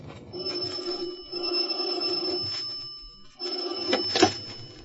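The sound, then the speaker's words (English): An old-fashioned telephone bell rings in the morning in two long, rattling bursts with a short gap between them, loud, with no voices. “In the morning, I had a cup of coffee and a phone call.”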